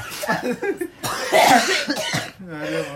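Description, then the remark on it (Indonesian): A run of harsh coughs from a bad cough in quick succession, the loudest in the middle, trailing off into a brief voiced groan at the end. “aduh kan sorry ya banyak batuknya ini bener-bener parah”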